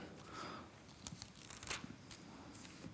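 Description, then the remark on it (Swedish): Pages of a paper Bible being turned to the Gospel of John, chapter 14, with soft rustles and a few crisp flicks over a few seconds, fairly quiet, with no talking. “Men jag ska bläddra fram det så att jag får läsa det innan till. Det är så gött att få bläddra i den här boken tycker jag.”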